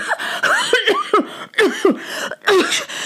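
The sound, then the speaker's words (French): A voice acts out a fit of coughing by two young people caught in dense smoke: four or five hoarse, voiced coughs in quick succession, fairly loud, each burst breaking off in a strained rasp. “Les deux jeunes gens se mirent à tousser sans pouvoir s'arrêter.”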